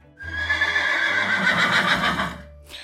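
A horse lets out a single loud whinny lasting about two seconds, its shrill quavering pitch wavering before tapering off, with a low rumbling beneath it and no voices.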